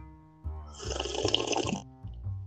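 A single noisy slurp of someone sipping tea, given by a friend, from a cup, lasting about a second, with quieter mouth sounds just before and after.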